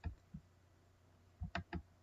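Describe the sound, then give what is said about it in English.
Faint clicking of a computer mouse scroll wheel while checking email: two isolated clicks, a pause, then a quick burst of three in succession, with no voices. “What's that you hear uh, clicking? Oh, I'm just uh, scrolling.”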